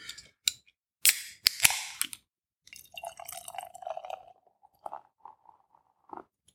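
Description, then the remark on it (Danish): A beer bottle is opened with a few sharp clicks and a pop, then poured into a glass with fizzing and glugging that rises in pitch. No talking. “Men skal vi egentlig ikke få noget øl i glasset, det, i stedet for jo, at vi sidder her og snakker?”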